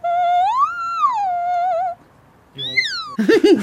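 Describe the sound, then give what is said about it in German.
A female opera student warming up her voice: a high, squeaky sung note slides up and back down for about two seconds, then after a short pause an even higher squeal glides downward, ending in a brief, rougher burst. “Ich fand vor allem diesen allerletzten Ton, diesen quietschenden, den ja.”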